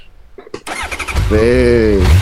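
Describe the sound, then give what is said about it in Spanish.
A motorcycle engine sputters through a couple of quick cranks, catches, and settles into a loud rumble, then revs upward in a rising whine that holds steady. “hay mayoría, así que la moto se va para la titiritera degenerada.”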